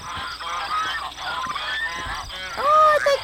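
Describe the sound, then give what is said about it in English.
A family of ducks on their way to the water for a swim quack in a busy cluster of nasal, overlapping calls, with a louder, drawn-out quack near the end and faint background noise throughout. “It's a whole family of ducks on their way to take a little swim.”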